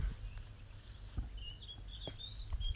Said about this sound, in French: là, je suis en pleine nature, dans le jardin de mes parents hein, qui, sont à la campagne, donc t'entends peut-être les, les oiseaux.